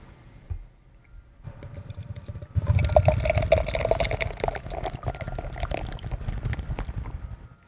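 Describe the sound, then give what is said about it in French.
A brief click, then a beer labelled IPA pours steadily into a glass for about five seconds, a loud gurgling, splashing rush with fizzing foam and a faint ringing tone, with no talking. “Oh la mousse.”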